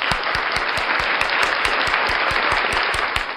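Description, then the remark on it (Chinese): A crowd applauds steadily, a dense wash of many hands clapping, with a regular thumping beat running beneath it at roughly four beats per second, no voices. “我觉得太需要勇气了，应该给他鼓掌啊！”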